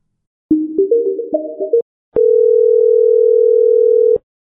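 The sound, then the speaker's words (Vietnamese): A short rising electronic chime of stepped tones plays, then a steady, loud ringback tone holds for about two seconds: an outgoing Zalo call, made to ask about the details of a job, waiting to connect. “Thế là mình mới gọi Zalo để hỏi chi tiết công việc mình sẽ làm”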